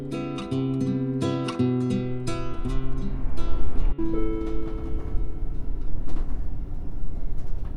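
A NordWestBahn regional train to Bad Zwischenahn closes its doors: a loud series of stepped electronic warning tones over a low interior rumble, then the engine hum and rolling noise carry on steadily, with no one speaking.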